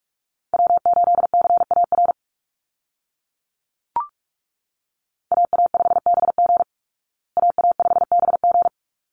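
Fast Morse code call signs at 45 words per minute, each repeated three times, keyed as a single steady mid-pitched tone in three rapid bursts of dots and dashes separated by short pauses, with a brief click between the first two.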